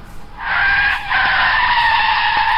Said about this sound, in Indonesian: Aku ngerem mendadak. Tiba-tiba di tengah jalan ada pertigaan dan kami tertinggal dari iringan mobil yang lainnya.